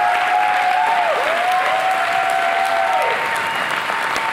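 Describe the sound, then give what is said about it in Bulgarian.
Sustained applause from a large audience, a dense steady wash of clapping filling the whole clip at high volume, with a faint whistle-like tone gliding beneath it. “Начина по който ръкопляскаш ми показва, че не спащаш това.”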